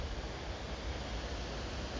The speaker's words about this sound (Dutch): In het bos hier, misschien hoor je nu de wind.